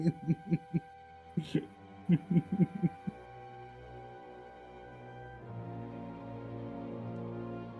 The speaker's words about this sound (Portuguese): Eu não vou tancar esse roncado, não, boy.